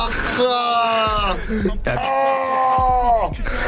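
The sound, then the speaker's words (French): A man in a studio control room lets out two long, loud screams in a row, each a drawn-out strained cry that slides downward in pitch, with a brief break between them. “il est en, il est en régie, il crie”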